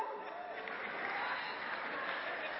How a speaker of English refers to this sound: I'm getting some applause from the women in the room.